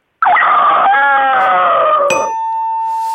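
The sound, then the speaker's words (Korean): A person loudly imitates a rooster's crow, a strained, drawn-out call lasting about two seconds, abruptly cut off by a bright bell ding that keeps ringing, signalling elimination on a show. “예, 이건 수탁 아, 수탁이요 예, 아, 저, 타가 한번 아, 해볼까요?”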